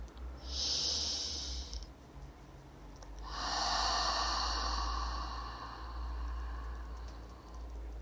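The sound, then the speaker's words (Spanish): A short breath followed by a long, slow, airy exhale through the mouth, soft, with no talking and a low steady hum underneath. “Exhalas despacio por la boca. Como si estuvieras creando vaho en un día de frío.”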